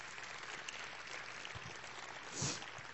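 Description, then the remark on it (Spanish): A crowd claps steadily at the speaker's call, a dense, even patter of many hands that holds for the whole stretch and swells briefly near the end, fairly soft overall with no voices. “Sí, denle un aplauso.”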